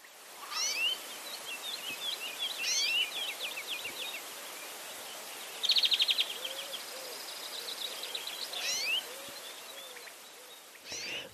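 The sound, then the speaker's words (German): A greenfinch sings a series of chained trills at varying pitches, with a dense buzzy trill in the middle, heard against a soft background hiss. “Eben, das sind äh, aneinandergereihte Triller in verschiedener Frequenz und Tonhöhe.”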